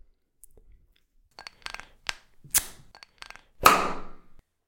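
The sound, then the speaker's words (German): A Fever-Tree tonic water bottle is opened: a few small clicks and crackles of the cap twisting, then a sharp pop followed by a brief fizzing hiss that fades out. No one speaks. “Ja, und auf jeden Fall, ähm, jetzt machen wir uns ein Fever Tree auf.”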